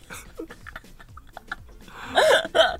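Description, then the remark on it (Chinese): A voice mimics hiccuping: soft, breathy murmurs lead into two loud, sharp hiccup-like yelps near the end, the second shorter than the first. “这样打嗝哦？”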